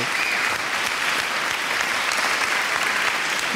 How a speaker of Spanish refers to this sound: Unos aplausos. Venga, ahí, dale, hombre, que te dejo tiempo. Un aplauso para el último DJ el último, El último y el que más tiempo estuvo en la península.